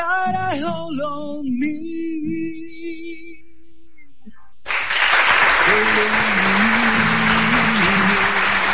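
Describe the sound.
A sung melody with held notes fades out, then a loud burst of applause breaks in and continues steadily to the end, with a faint voice or cheer underneath.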